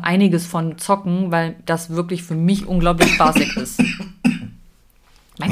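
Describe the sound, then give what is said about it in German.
A person talks, then lets out a short, dry allergy cough and throat clear from a dry throat, fairly loud, before trailing off into near silence. “Das ist dieser Allergiehusten, nenne ich den mal.”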